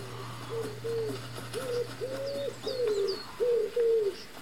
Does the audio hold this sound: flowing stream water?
no